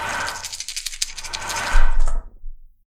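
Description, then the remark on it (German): Several dice are rolled in a tabletop game, clattering and rattling together in a quick burst of hard clicks, with a louder tumbling knock before they settle showing two 1s, a 4 and a 3. No one speaks. “Zweimal die 1, eine 4 und eine 3.”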